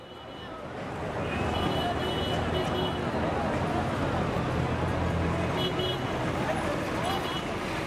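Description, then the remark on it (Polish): Steady roar of a busy city street, with engines rumbling and scattered horn toots over a constant wash of traffic and crowd murmur. “Nieustanny hałas klaksonu zagłuszył moje myśli.”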